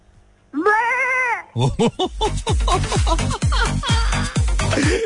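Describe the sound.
A man's voice imitates a goat as the first of three requested animal sounds, starting with one long wavering bleat, then a rapid series of short, quavering bleats, loud and continuous until the end.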